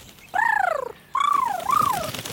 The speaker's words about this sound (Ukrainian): І тут прилетів гарненький білий голуб та сів на парканчик. Привіт, пташечко! Чи не допоможеш нам вирвати цю величезну рібку? І голуб прогуркотів. На мові голубів це означало, звісно, так.